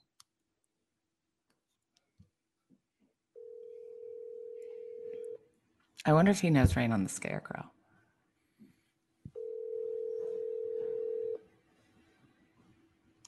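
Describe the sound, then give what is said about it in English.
A phone call to a father's cell phone rings out: two long, steady, low-pitched ring tones about two seconds each, with a short burst of talking in the gap between them and faint clicks before. “Feel free to call your dad while we're on oh, the phone.”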